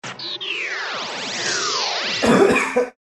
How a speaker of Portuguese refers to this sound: Você tá tossindo aí, você tá ruim também, rapaz? Tô ruim também.